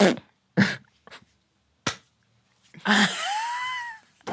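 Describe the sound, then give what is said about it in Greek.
A voice imitates a sweaty hand peeling off a very sweaty thigh while sitting cross-legged: a few short, sticky smacking pops, then a drawn-out squeaky, wheezing unsticking sound, with no talk over it. “και πάω να σηκώσω το ένα μπούτι, ρε παιδί μου, για να αλλάξω σταυροπόδι και έχει κολλήσει το χέρι πάνω και όπω ξεκολλάει το χέρι ακούγεται.”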